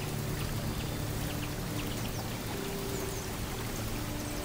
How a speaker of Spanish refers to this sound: Ahora quiero que escuches. Escucha la cascada al caer. Cómo el sonido relaja tu cuerpo.